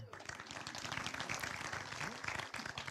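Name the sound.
audience clapping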